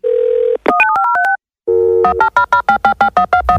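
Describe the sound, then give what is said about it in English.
A steady phone dial tone gives way to a quick run of dialing beeps, then a rapid, repeating busy signal pulses loudly and evenly until the end, with no talking. “Don't hang up that phone.”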